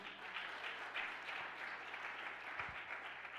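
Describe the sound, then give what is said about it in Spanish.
A large crowd claps loudly and steadily, a dense wash of applause that holds evenly for several seconds without letting up, with no one speaking over it. “Del otro aplauso fuerte, vamos.”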